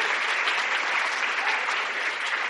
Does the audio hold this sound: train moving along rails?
no